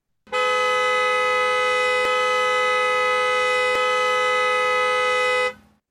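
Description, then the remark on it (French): A car horn blares in one long, unbroken blast for about five seconds, loud, with a steady, harsh tone and no voices. A driver's head has struck the horn after his car hit a reversing car head-on on a motorway. “Le klaxon a une étrange forme de balle de revolver, une forme oblongue, et la tête de Samy heurte de plein fouet les klaxons,”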